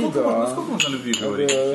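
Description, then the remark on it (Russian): Glasses clink together in a toast to love, three or so bright, short chimes scattered over a couple of seconds while people keep talking. “Так выпьем же за любовь и свойственную ей интонацию.”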